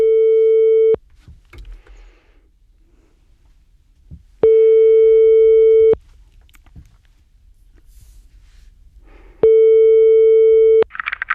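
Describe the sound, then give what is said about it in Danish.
A phone's ringback tone sounds three times while a call to the caller's mother goes through, each steady electronic buzz lasting about a second and a half, separated by long quiet pauses with faint background noise. “Så jeg forsøger at tage ansvar for situationen og ringer til min mor.”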